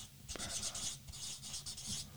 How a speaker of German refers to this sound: Schreibst du es noch auf mit Stift?